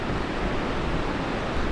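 Winter storm wind roars by the sea at Lauttasaari in Helsinki, a dense, steady hiss and rumble of gusting air mixed with crashing surf, loud and unbroken throughout, with no voices.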